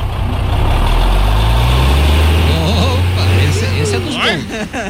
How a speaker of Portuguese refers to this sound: Vamos junto! Vamos lá! Liga o caminhão aí! Soltou o freio!